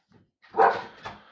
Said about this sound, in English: go outside, dog.